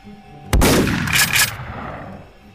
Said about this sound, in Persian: و در نهایت تیر ششم شلیک میشه جمجمه کندی رو میترکونه و توی فیلم مشخصه که کندی به عقب و سمت چپ هل داده میشه